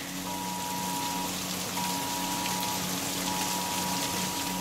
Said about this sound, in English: It's really coming down, man. Our street has about two and a half foot of water on it.